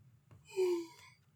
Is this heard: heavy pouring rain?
no